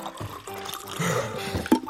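Water pours steadily into a glass for a couple of seconds, a splashy trickle whose pitch rises as the vessel fills, ending with a slight clunk.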